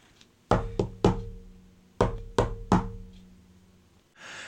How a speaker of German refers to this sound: Und dann klopft er an der Tür.